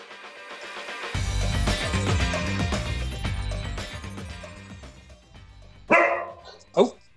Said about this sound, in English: Is that your dog?